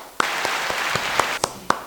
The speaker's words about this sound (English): Let's just give you a round of applause.